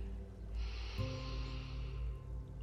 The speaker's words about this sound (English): Again, just like that, deepening your in breath and letting your out breath be even longer. Activating your parasympathetic nervous system as you do. Breathing in,